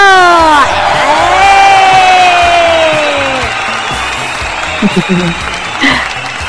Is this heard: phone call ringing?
no